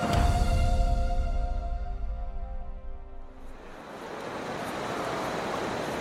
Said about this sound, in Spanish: Playa de la Concha, San Sebastián. Las olas rompen a los pies del paseo, separado del mar por una característica barandilla, todo un símbolo de la ciudad